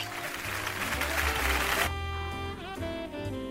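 A burst of clapping on a Cami Radio broadcast fills the first couple of seconds, dense and fairly loud, then cuts off abruptly, leaving a voice or tonal music carrying on alone.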